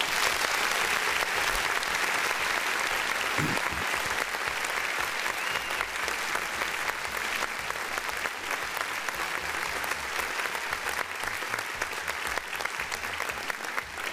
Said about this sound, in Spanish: Eh, aplausos para la perrita Jackie que, está haciendo su chamba.